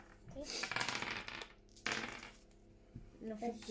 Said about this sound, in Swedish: Får ni slå tärningarna igen?